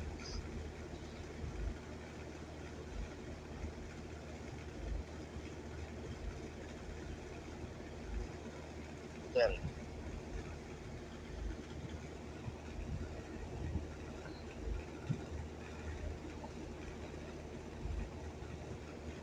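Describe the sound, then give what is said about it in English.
A metro train runs on rails with a steady low rumble throughout, broken midway by a brief sharp metallic squeal, while a voice on the metro briefly speaks. “That's what make just that metro that, that voice on the metro taking you know official political ad just sounds so gay that I just like don't want to make fun of him being gay, but it's like.”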